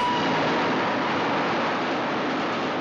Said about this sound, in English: the train narrowly passes her